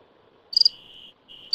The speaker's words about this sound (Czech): Slyšíš? Slyším ptáky. To byl cvrček.